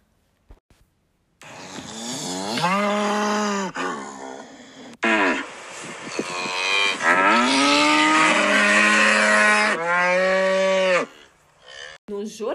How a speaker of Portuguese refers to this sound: Vacas protestam por serem acusadas de serem responsáveis pelo aquecimento global.